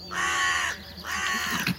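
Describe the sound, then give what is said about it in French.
Two loud, harsh alarm caws from carrion crows driving a vixen away from their nest, each drawn out and raspy, following one after the other with a brief pause, with no voices. “Les corneilles croisent de plus belle pour la repousser.”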